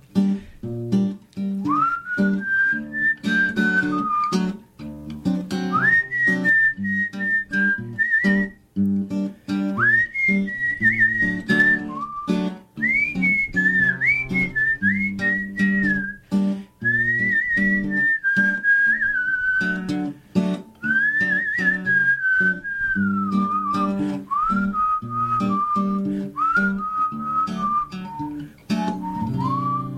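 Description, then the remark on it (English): A person whistles a clear, wavering melody in repeated phrases over a steady instrumental backing, the whistle sitting prominently on top throughout with short breaths between lines, during a July 2006 live performance in the KPSU interview booth. “some uh, nice whistling there.”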